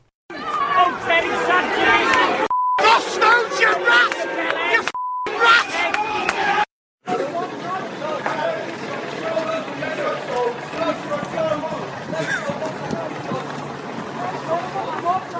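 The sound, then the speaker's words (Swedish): Angry Everton football fans jeer and shout as a player leaves the pitch after a League Cup match against Barnsley, a loud rowdy crowd with two short censor bleeps cutting through, a brief gap, then more dense jeering and yelling. “Men hur det lät när Everton fans, eh, från Everton-fansen när han klev av planen efter, eh, det var väl ligacupmatchen mot Barnsley i veckan tror jag.”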